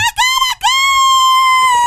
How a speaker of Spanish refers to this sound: El gallo está cantando y hasta mañana.